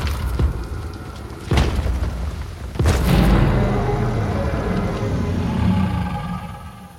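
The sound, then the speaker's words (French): Two heavy, booming footsteps thud a second or so apart, then a huge, deep Tyrannosaurus rex roar rumbles loudly and steadily for several seconds before fading slightly at the end. “Son cri ressemble à un hurlement. Je n'ai jamais rien entendu d'aussi fort et puissant.”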